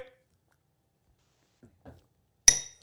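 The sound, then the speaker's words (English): Drink glasses holding Crown peach and Stone Brewing Peak Conditions hazy IPA knock together once in a toast, a sharp clink with a short bright ring, after a few seconds of near silence broken by faint soft rustles. “Cheers. Cheers. Cheers. Salute.”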